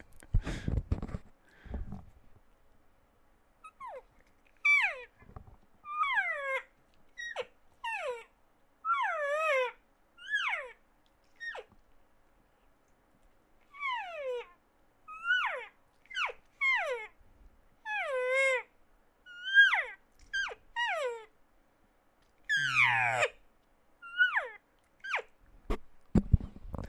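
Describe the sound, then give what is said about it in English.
A person imitates general elk cow and calf herd talk: a long series of high, whiny mews and chirps sliding downward in pitch, some squealing, repeated in irregular bursts with short pauses and no talking. “So a lot of that that I just did there is kind of just your general cow calf, uh, cow calf herd talk”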